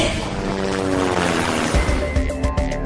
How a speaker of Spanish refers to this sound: Él pidió un helicóptero que lo trasladó a la ciudad de Coatzacoalcos. Le pedimos un ride en helicóptero a Flavino Ríos y regresamos a políticamente incorrecto.